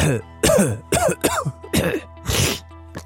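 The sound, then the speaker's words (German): A person coughs repeatedly, a series of harsh, throaty bursts with brief pauses between them, ending with a final small cough. “Husten ohne Ende in Deutschland.”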